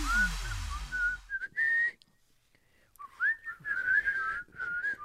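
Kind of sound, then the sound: human body sound, human whistling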